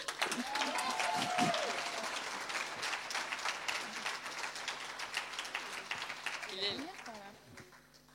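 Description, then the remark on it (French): An audience applauds with dense, steady clapping, with a few voices calling out over it. The applause holds strong for several seconds, then thins and fades toward the end. “Vous pouvez applaudir.”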